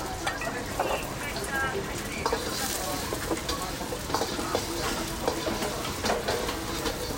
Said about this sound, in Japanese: そして溶いた卵を鉄鍋の方に入れていくちょっと聞いてみましょう